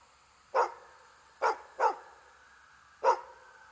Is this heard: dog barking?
yes